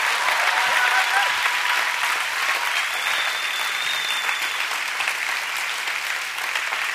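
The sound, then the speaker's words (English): Steady audience applause fills the whole stretch, a dense wash of many hands clapping at an even, sustained loudness, with a few faint whoops or voices mixed in, given as a hand to say thank you to Jesus. “Can we just give them all a hand to say, Thank you, Jesus?”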